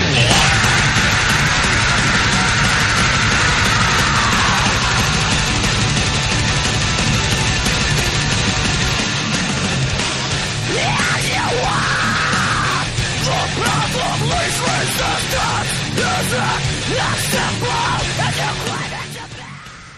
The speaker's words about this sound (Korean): 이거는 최근 노래잖아요.